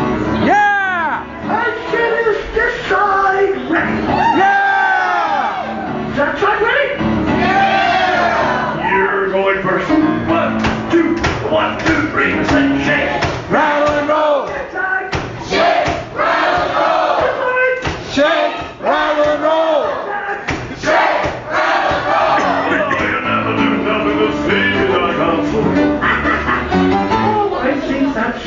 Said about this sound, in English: Everybody on this side of the room jumped up started yelling, waving their arms in the air, waving their hair.